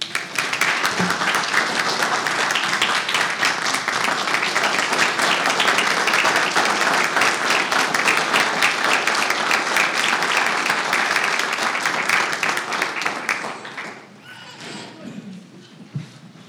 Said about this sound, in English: Uh, would ask you to please give her a round of applause.